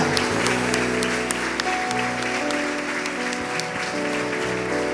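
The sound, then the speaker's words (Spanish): A crowd claps loudly and steadily for several seconds, giving a strong round of applause to the Lord in the afternoon, with dense overlapping hand claps, while sustained tones, likely a keyboard or music, play underneath. “Usted tiene que darle un fuerte aplauso al Señor en esta tarde.”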